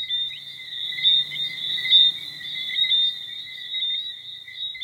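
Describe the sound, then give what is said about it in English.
A frog calls on a humid night with a high, shrill, unbroken trill that holds steady for the whole stretch, loud, over a faint low rustle of night background. “Anyway, any ideas on what this frog is called?”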